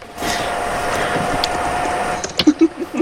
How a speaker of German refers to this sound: Das ist das, was jetzt so laut lüftet.